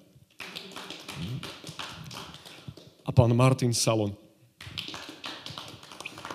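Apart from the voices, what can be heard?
audience clapping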